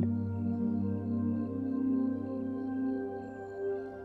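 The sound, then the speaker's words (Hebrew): Soft, sustained ambient background music for a guided meditation, with layered drone tones from several instruments that swell gently and hold steady, calm and unhurried, playing quietly on its own without any voices. “במוזיקה שכבר נשמעת ברקע.”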